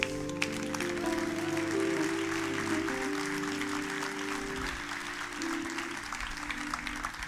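An audience applauds steadily for several seconds, a dense wash of clapping with sustained organ-like tones humming underneath, with no one speaking.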